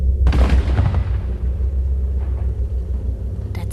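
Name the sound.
cannon firing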